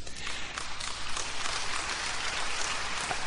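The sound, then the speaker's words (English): A crowd applauds steadily, dense overlapping claps forming a continuous wash of noise, with some cheering mixed in, sustained at an even, fairly loud level throughout. “Are you, are you cheering for them?”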